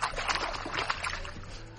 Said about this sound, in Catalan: Anem a fer una SMR de l'aigua.